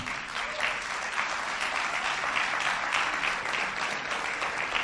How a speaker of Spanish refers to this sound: Este es un buen momento para darle un aplauso al Señor.